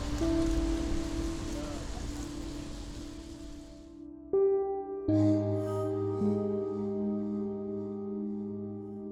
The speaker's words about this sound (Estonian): pean natuke naudin seda vihma ja vaatan, mismoodi see kulgemine läheb